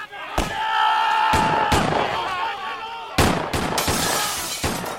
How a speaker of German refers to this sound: Eine Kaskade von Blei prasselte durch die Nacht und McParlins Männer leerten ihre Revolver direkt in die Bretterbude.